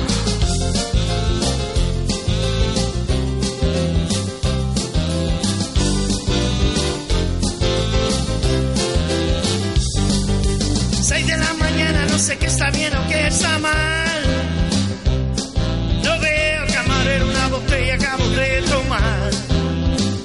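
A loud, full-band rock song plays continuously with driving drums and dense guitars, and a melodic vocal line rises more clearly in the second half.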